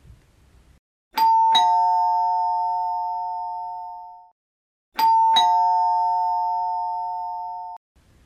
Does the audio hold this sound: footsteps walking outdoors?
no